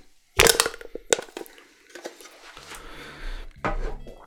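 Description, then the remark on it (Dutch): An empty drink can is crushed, a loud metallic crackle followed by several sharper crinkling crunches and a final burst of crumpling, with no talking. “Het is tijd om een blikje te kraken.”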